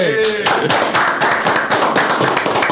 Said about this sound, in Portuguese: Uma salva de palmas, né,